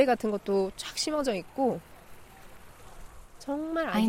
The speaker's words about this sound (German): Können Sie das Rauschen hören? Man kann das Wasser und den Wind hören.